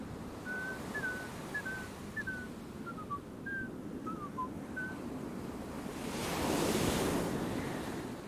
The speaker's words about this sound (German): Mann, Windstärke 8 und so ein pfiffiger Wind. Er hat drei Melodien gepfiffen.